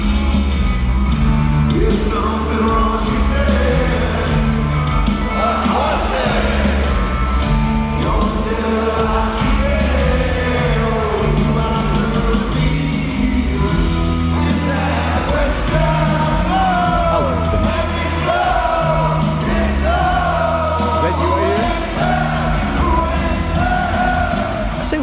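A loud live rock band performance on Saturday Night Live, with a crowd yelling and cheering along throughout, the shouts blending with heavy, sustained band music at a steady, full volume.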